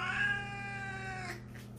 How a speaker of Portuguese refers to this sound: Todo gato mia? todo gato mia, é, mas tem gatos que miam bem baixinho e tem raças que são conhecidas como ah. belas miadoras.